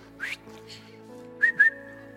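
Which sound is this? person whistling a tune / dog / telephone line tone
person whistling a tune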